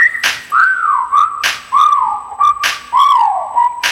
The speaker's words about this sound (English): There go, damn, shorty look good, and I'm thinking about getting at her. Okay, time to whistle at her. Hey, girl, you made my whistle blow.